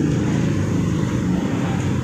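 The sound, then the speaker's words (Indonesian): A steady, low rumble of a passing car engine outside holds at an even, moderate level throughout, with no voices over it. “itu suara apa ya oh mobil sorry sorry ada suara mobil”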